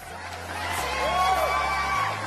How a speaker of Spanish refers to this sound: Un aplauso.